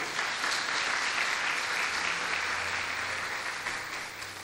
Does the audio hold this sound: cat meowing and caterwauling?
no